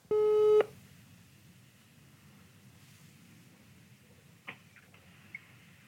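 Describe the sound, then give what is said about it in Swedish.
A loud electronic telephone tone sounds once, briefly, as a call is placed to the company Wilson, then cuts off into a faint hissing line with a couple of soft clicks. No one speaks. “vi ringer Ola på Wilson”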